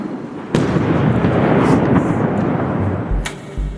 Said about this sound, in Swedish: BBCs reporter tvingas ducka när en missil slår ner strax utanför hotellet han bor på i Kiev